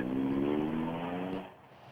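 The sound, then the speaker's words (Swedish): Rally car number 42's engine roars past in a loud, steady drone with strong low harmonics, then drops away sharply as it fades after about a second and a half. “Men då vet ni att 42an har passerat här.”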